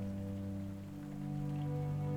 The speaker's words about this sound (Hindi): इस बारिश की टपकती बूंदों के साथ मैं खो रहा हूं तेरी यादों में